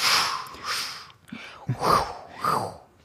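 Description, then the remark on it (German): A voice imitates wind rushing through feathers, the sound a company of riders made riding through the wind, with a series of breathy, hissing whooshes that swell and fade, about four bursts in a loose rhythm, fairly loud. “waren die geritten sind durch den Wind. Also eine Kompanie, was das Oha. für Geräusch gemacht hat.”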